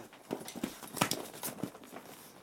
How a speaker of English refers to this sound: All these, there's so many dogs in this area, man.